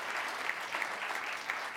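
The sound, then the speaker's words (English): An audience applauds in a steady, dense wash of many hands clapping, holding an even loudness throughout with a few slightly sharper claps poking through, clapping in answer to a question about office parties. “How many of you actually applaud if you have been to an office party or are going to one or, even want to think about it?”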